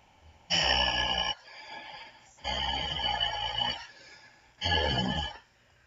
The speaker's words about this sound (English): Who was calling me, and why was it just breathing noises? Almost sounded like a demonic demon on at the other end of the line.